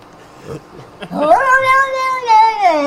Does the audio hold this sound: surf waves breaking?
no